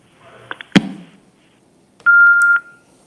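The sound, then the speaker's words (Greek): A sharp handset clatter as a caller hangs up, then after a pause a loud, steady electronic telephone line tone sounds for about half a second before cutting off; no one speaks. “Αυτός περίμενε και μετά έκλεισε το τηλέφωνο.”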